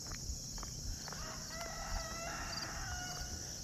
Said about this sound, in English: And let's face it, who doesn't want to hear a rooster crowing on a podcast?